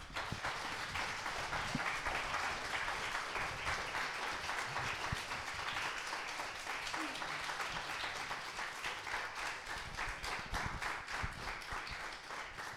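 Sustained audience applause after a concert, a dense steady wash of many hands clapping at a fairly even loudness throughout, with no voices standing out.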